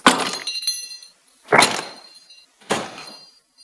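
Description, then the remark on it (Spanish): Three separate loud crashes of a drawer full of objects being dropped to create a car crash sound effect, each a sharp clattering impact with ringing, rattling debris fading out before the next, with no talking. “Esto os cuento así un poco como curiosidad, es un cajón lleno de cosas que se tira, ¿no? Se, deja caer.”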